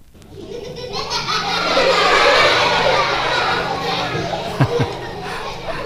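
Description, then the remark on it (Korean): A bright, bustling wash of many children's voices laughing and shrieking together, steady and fairly loud throughout, with a couple of sharper bursts near the end. “아이들 웃음소리입니다. 이 천진난만한 소리.”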